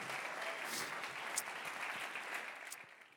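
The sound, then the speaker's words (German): Steady applause given to God at a morning gathering, a dense wash of many hands clapping at an even level for a few seconds, with scattered sharper claps and no talking. “Oder da können wir Gott auch nochmal einen großen Applaus geben.”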